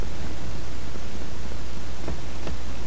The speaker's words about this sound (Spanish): Está lloviendo, escuchamos.